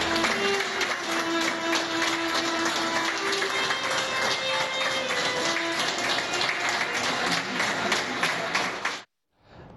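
A group applauds a person who has recovered from the coronavirus, steady, dense and fairly loud clapping for about nine seconds with some sustained tones or voices mixed in, before the sound cuts off abruptly.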